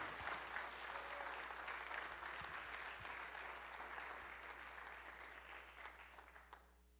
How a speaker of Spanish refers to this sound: ¿Cuánto le dan gloria a Dios, hermano? Si le va a aplaudir, apláudale bien, hermano, aleluya.